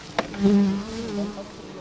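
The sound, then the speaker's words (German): A dense, steady hum of many small brown honeybees buzzing and crawling around a reddish-brown hive box just opened at a beekeeping course on a meadow near Malterdingen, Emmendingen district, Germany, with a faint click near the start and the drone wavering slightly in pitch as the swarm moves. “Überall schwirren und krabbeln Unmengen der kleinen braunen Bienen umher.”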